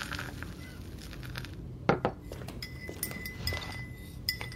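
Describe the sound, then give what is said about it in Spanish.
Cups and dishes clink against each other several times while someone makes coffee, with one sharp, louder clink standing out amid quieter scattered clatter. “Estaba haciendo café.”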